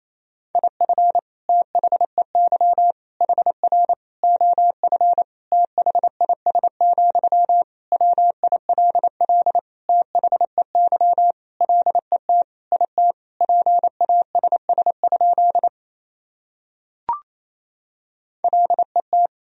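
A steady single-pitched Morse code tone keys rapidly in dots and dashes at 28 words per minute, sending sentences built from the top 400 words and abbreviations, loud and clean with no voices, briefly pausing before resuming near the end.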